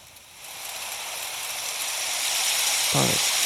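A light snowfall ambience effect: a soft, steady hiss fades in and holds evenly, with a brief synthetic-sounding voice blip near the end.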